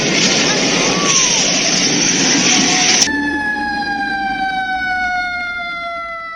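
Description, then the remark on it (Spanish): A Mexico City earthquake early-warning siren (alerta sísmica): after a few seconds of loud, rushing noise, a steady high alarm tone takes over and sustains, sliding slightly downward in pitch with strong harmonic overtones. “Alerta sísmica.”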